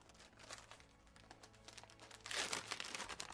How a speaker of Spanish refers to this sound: Fuimos abriendo los regalos entre soniquetes de celofán, papeles, música de fondo y risas